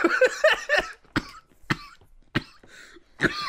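A coughing fit: a quick cluster of rough, voiced coughs, then several harsh hacking bursts spaced out with short gasping pauses. No talking, just the person coughing.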